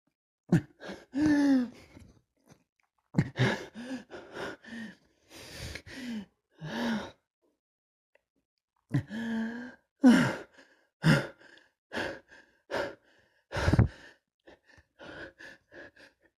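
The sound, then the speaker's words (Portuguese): Voiced panting: a person takes quick, audible gasping breaths in short bursts with brief pauses, growing sharper and more clipped toward the end. “Afigar, ofegante.”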